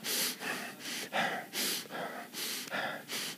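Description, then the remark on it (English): Quick, shallow breaths from a stressed person puff in and out in a steady, hurried rhythm, about eight short breaths with no talking, sounding tense and strained. “And you're breathing shallow.”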